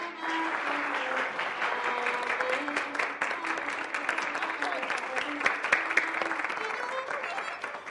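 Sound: audience applause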